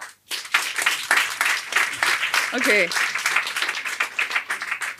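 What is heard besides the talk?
audience clapping in response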